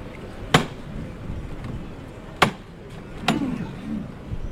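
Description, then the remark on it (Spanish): Three sharp metallic knocks from the knocker (llamador) of a procession float, unevenly spaced, after which the float is lifted, ringing out clearly over a low, steady background murmur. “Golpe de llamador, el paso que salta, lo reciben en la cervical, el tambor destemplado anuncia,”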